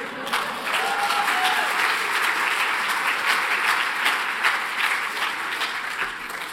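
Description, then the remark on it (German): Sustained applause from an audience, a dense wash of many hands clapping at a steady, fairly loud level for several seconds, with no voices standing out. “es ist nicht angebracht zu klatschen, weil äh, die Aussagen sind nicht bedeutend, wie ich morgen früh zeigen werde.”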